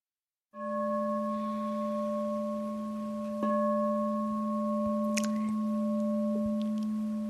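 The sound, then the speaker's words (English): A bell is struck once in a hall to mark the end of a silent retreat, ringing out in a long, steady, humming tone with bright overtones, sustaining at an even volume to the end. There is a faint second strike midway and no talking. “So those bells mark the beginning of being able to converse with one another.”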